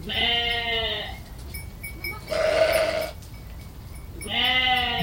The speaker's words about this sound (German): Der Mann freut sich über die Gesellschaft und die Schafe fangen vor Überraschung an zu blöken.